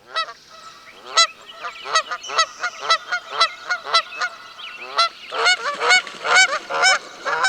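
A flock of geese in Tainan's Metropolitan Park, Taiwan, honks continuously and loudly, many overlapping nasal calls in rapid, uneven bursts, with no one speaking.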